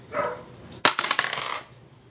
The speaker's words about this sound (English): So roll percentile dice, see if you roll above or below 50.